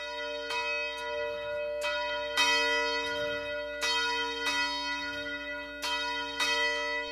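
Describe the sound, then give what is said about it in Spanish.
A convent church bell rings out in repeated strokes at an uneven, unhurried pace, each strike blooming into a bright ringing tone that lingers and overlaps the next, signalling to nuns the hours of worship, meals and work. No voices are heard. “A lo largo de las 24 horas, el sonido de una campana les advierte sobre la hora de adoración, de comer los alimentos y del trabajo.”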